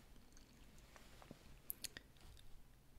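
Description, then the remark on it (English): Chewing and munching of a breakfast of eggs, bacon, bread and cheese, eaten hurriedly, with soft wet bites and a few sharp crunchy clicks scattered over a few seconds, quiet and continuous with no talking. “You eat hurriedly, excitedly,”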